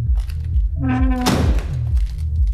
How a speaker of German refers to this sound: Als Flex die schwere Metalltür öffnete, schlug Chris als erstes der Geruch von alten Zigarren entgegen.